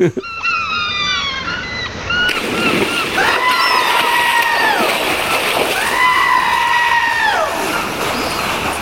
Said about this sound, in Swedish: Nej, jag behövde ju inte fejka till någon ljudkollage. Han hoppade ju gärna i vattnet som ni hörde själva.